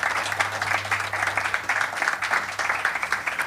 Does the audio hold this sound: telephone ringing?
no